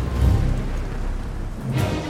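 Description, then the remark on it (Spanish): A thunderstorm: a steady wash of heavy rain with deep thunder rumbling, swelling near the start and again toward the end. No voices. “una de ellas inspiró a William Shakespeare a escribir La Tempestad, la historia de un naufragio después de una brutal tormenta.”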